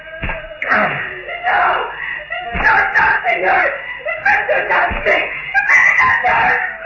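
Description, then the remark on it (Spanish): Three sharp whip lashes crack against a witch's flesh at steady intervals, each a loud snapping smack, while she wails and cries out in pain throughout. “El látigo rasgaba las plácidas carnes de Amadea la bruja, que se encogía dominada por el dolor.”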